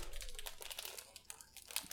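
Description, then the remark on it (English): A plastic cookie package crinkles and rustles as it's torn open, a steady run of bright, crackly bursts with a sharper crunch near the end and no talking. “This nigga's opening cookies.”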